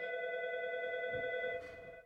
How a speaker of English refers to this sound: it's the emergency phone Can you answer? emergency phone.